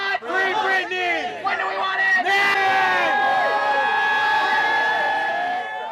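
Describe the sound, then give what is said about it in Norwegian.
A crowd of Free Britney protesters cheers and shouts outside a courthouse in Los Angeles, many overlapping raised voices whooping and calling out loudly and continuously, with no pauses throughout. “Utenfor et rettslokale i Los Angeles venter Free Britney-demonstranter spent.”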